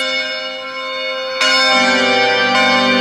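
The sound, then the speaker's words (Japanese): A bell rings with rich, sustained harmonic tones, struck again partway through so a fresh, louder peal rises over the lingering ring, then a third strike near the end, with no voices. “鐘が鳴っております。”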